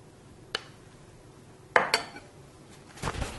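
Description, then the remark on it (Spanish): A plate, on which pressed, molded food will be kept in the fridge with kitchen paper at its base, is set down in a kitchen with a few sharp clinks of crockery, one small knock followed by two louder clattering contacts, then a softer scraping shuffle at the end, with no talking. “Lo voy a guardar en la nevera dentro de este plato y le pongo en la base un papel de cocina para que vaya absorbiendo el agua que va soltando.”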